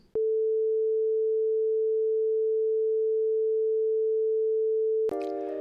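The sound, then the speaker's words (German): A pure, steady sine tone holds at constant pitch and loudness for about five seconds, alone and clean, then gives way abruptly to a brief, richer musical sound. “Und damit du mal hörst, wie so ein Sinus klingt, hier ein Sinuston aus der Physik mit 440 Hertz also 440 Schwingungen pro Sekunde.”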